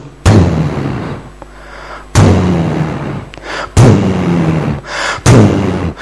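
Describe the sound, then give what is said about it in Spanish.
Four heavy, booming footsteps of a giant, Jurassic Park style, land at a slow, steady pace, each deep thud rumbling and ringing out before the next. Loud, with no voices. “Que siempre que camina algo, como en Jurassic Park, hay un vaso de agua, siempre.”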